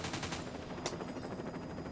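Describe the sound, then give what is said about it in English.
Helicopter machine gun fire aimed at a building: a rapid, steady rattle of shots running the whole two seconds, with one sharper, louder crack partway through and no voices. “At that moment, and for the first time since the incident began, the chopper stopped shooting and began shifting in its place, with the long barrel of the gun pointed toward the people and the cars in the street.”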